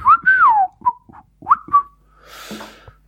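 A loud whistle into a microphone sweeps up and down in a wavering tune, followed by several short chirpy whistled notes, then a breathy rush of noise at the end.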